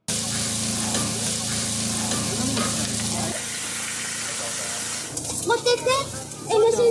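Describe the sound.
Food sizzles in a pan with a steady, loud hiss while it is stirred, as vendors and volunteers cook free hot meals at a stall in a disaster area, a low mechanical hum running underneath at first; murmured voices join over the frying toward the end.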